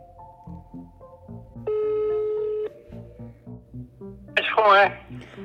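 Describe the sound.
A single long, steady ringback tone from an outgoing phone call placed by students to a witness sounds for about a second, clear and prominent over quieter background music, followed by a brief burst of voice-like sound.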